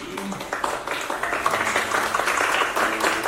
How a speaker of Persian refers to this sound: یه دست به افتخارشون بزنید